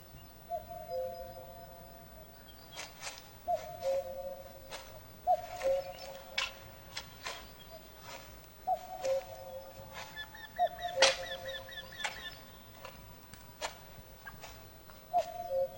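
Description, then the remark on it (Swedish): A common cuckoo calls its two-note, falling cuck-oo over and over at a steady pace, with other birds chirping and ticking in the background. “Uh, göken är ju faktiskt någonting som också, du nämnde ju den.”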